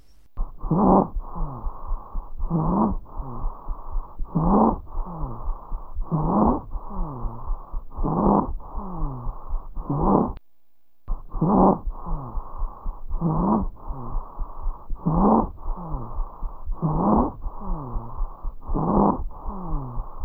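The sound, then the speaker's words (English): Harsh, high-pitched stridor breathing repeats in a steady rhythm of labored breaths, loud, heard more on expiration than inspiration, with a brief silent gap midway and no talking. “So, having said that, let's listen to a sound on Stridor.”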